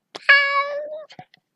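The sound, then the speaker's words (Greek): A single loud meow from a big fluffy cat, drawn out and falling in pitch, recorded with the microphone placed between a person's feet, followed by a few soft clicks and small rustles. “Αυτό ήταν ο Πελουτσόν. Είμαι πολύ χαρούμενη που έχω καταγράψει την υπέροχη φωνή του.”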